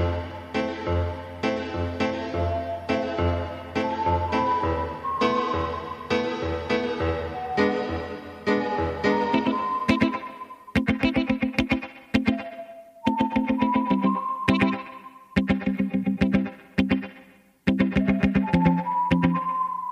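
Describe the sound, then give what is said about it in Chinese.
A song with a thin whistled melody gliding in pitch over steady plucked guitar chords, the accompaniment growing choppier and more staccato in the second half; no singing or talking. “所以呃咱来听一下这首歌啊 还有那口。哨是吧？”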